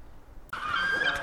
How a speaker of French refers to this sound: Donc nous sommes en ville à Morlaix au soleil, tu as un perroquet sur l'épaule et nous entendons les goélands qui gueulent.